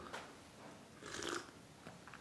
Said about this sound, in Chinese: 我喝口水